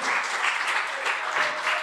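A room full of people claps steadily, a dense, continuous wash of applause that holds at an even, fairly loud level throughout, with no voices standing out.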